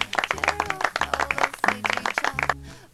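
A short burst of applause: dense, rapid clapping from several hands for about three seconds over a low, pulsing tone, cutting off abruptly at the end.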